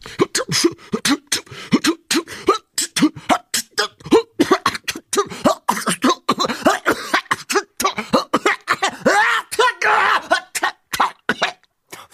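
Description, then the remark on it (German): Repeated harsh coughing and throat clearing from the flu in rapid, irregular bursts for about twelve seconds, loud, with rasping, hacking fits and no pauses for talk. “Das ist ganz normale Krippe, du Idiot.”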